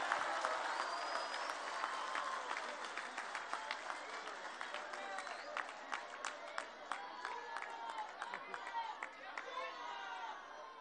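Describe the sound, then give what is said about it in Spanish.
An audience applauds for Cuitlagua, who stands and raises his hand, steadily for about ten seconds. It is a dense wash of many hands clapping with sharp individual claps standing out, the sound thinning slightly toward the end. “Un aplauso para Cuitlagua.”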